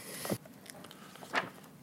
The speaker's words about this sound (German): Robert Binner blättert in einem dicken Briefmarkenkatalog mit unzähligen Abbildungen.